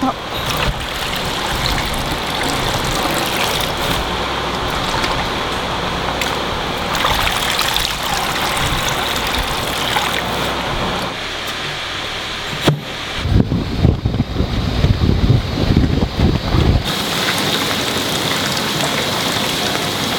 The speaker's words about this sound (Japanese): 今朝は明治15年創業大黒屋商店ところてんのいい音